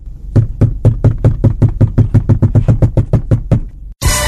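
A rapid, steady series of about fifteen loud knocks on a door, evenly spaced, ending abruptly before a burst of hiss.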